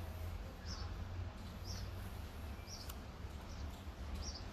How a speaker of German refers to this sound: Lassen wir nochmal hier den, den Vogel ja. zwitschern, noch so ein bisschen Atmo, man nennt das Atmo. Atmo? Wir lassen nochmal ein bisschen Atmo aufs Band. Also den, den, den Fluss hört man so ein wenig.